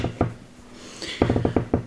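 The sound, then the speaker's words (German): A wooden table creaks under shifting weight: two short creaks, a pause, then a quicker run of clicky, groaning pops, fairly quiet with no talking. “Nur das Knarren des Tisches.”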